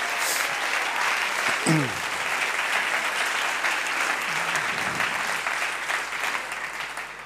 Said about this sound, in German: Und gibt der Moni auch mal einen Applaus.